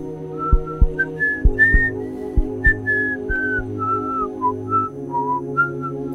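Someone whistles a cheerful melody of short, clear notes that rise and fall, accompanied by light background music with a steady low bass pulse.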